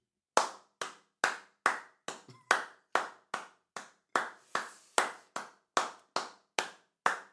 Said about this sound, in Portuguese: E eu, para este momento, eu vou pedir 10 segundos de palmas.